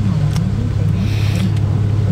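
A Porsche 991 GTS sports car engine drones steadily, a constant low rumble with a slight rise and fall in pitch, as if cruising, with no distinct revs or pauses.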